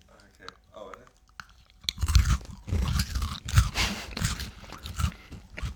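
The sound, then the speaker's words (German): After a brief quiet murmur, several people bite into crispy snacks at once on a count of three, producing loud, overlapping crunches and chewing that carry on irregularly for a few seconds. “Und wir können auch als Outro alle einmal in so ein Crispy-Ding ah, beißen.”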